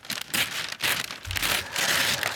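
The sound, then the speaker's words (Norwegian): Red gift wrapping paper with a bow on a birthday present crinkles and rustles open in several bursts of crisp, dense crackling with short pauses between, no voices present. “Lekkert innpakka i rødt papir med sløyfe på.”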